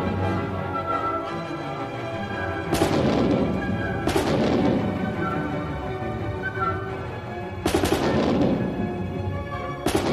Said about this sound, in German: bei der Uraufführung im Dezember 1813, die unter anderem von Antonio Salieri dirigiert worden ist, haben einige junge Komponisten, darunter Giacomo Meyerbeer und Ignaz Moscheles, die großen Trommeln bedient, um den Kanonendonner zu simulieren.